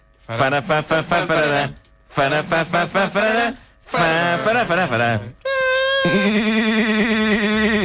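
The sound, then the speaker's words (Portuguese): A voice imitates the telephone-ringing theme tune of a Portuguese radio programme, singing three quick rhythmic bursts of syllables, then holding a long, steady, buzzy tone, fairly loud. “Que era assim que tocava o telefone.”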